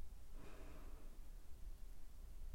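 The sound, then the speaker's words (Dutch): A single slow, calm breath drawn in through the nose, soft, rising briefly and then fading into quiet low background hum, with no talking. “Adem rustig door je neus in”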